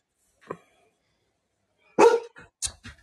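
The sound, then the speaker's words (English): A dog barks: one faint early yelp, then after a pause a loud, sharp bark followed quickly by two shorter barks. No one speaks. “Shut up! Fucking Dog.”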